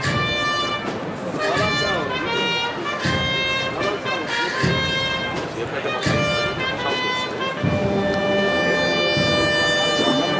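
A brass band plays a slow processional march, loud and close, with sustained horn melody over heavy drum beats landing every second or so.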